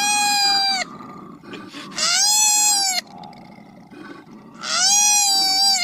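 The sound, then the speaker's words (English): An adult koala bellows three times: loud, drawn-out, wailing cries about a second each, separated by short pauses, with low rumbling noise underneath and no talking. “Poor koala.”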